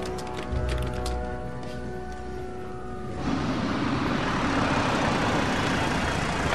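A car engine hums steadily with a tonal drone, then after a few seconds gives way to a louder, even rush of road and tire noise as a father and son drive home in the car. No one speaks.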